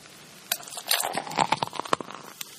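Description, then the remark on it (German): Beer being poured into a glass: a sharp pop, then a frothy hiss with a steady patter of crackling bubbles and a few brighter clicks, moderately loud, with no voices. “das Plopp, das Einschenkgeräusch.”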